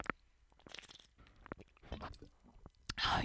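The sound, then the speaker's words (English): Someone drinking water: soft sips, swallows and wet mouth clicks in an irregular series, ending with a short, louder rushing splash. “So let me drink water. I haven't drank anything yet.”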